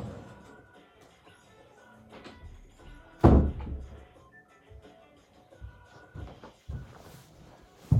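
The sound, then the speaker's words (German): A door swings shut with a single solid, loud thud partway through, surrounded by quieter shuffling and handling noises. “ich hier die Tür zu.”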